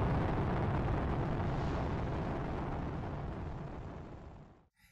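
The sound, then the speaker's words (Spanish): A powerful rocket launch rumble roars steadily for several seconds, dense, thinning slightly toward the end before cutting off abruptly. No voices are heard. “Pero de repente, esas instalaciones científicas que ahora están en todo el mundo comenzaron a temblar, y la gente observó preocupadamente mientras que estos edificios tomaron vuelo como cohetes hacia el espacio exterior.”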